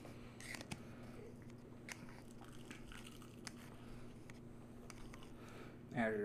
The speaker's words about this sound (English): There's nothing better than a crunchy, crispy waffle.